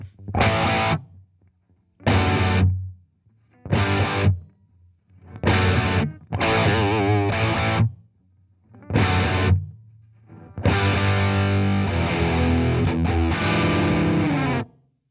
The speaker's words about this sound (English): Here we are in crunch mode on the classic gain channel with the gain cranked to a Jim Marshall approved 10.